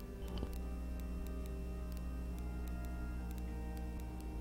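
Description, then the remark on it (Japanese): A pocket watch, gripped tightly in a doctor's hand, ticks steadily in a quick, even rhythm, its small crisp clicks sounding over a low, constant background hum, with no one speaking. “あなたのお父さんはもう帰っていますか博士は固く時計を握ったまままた聞きました。”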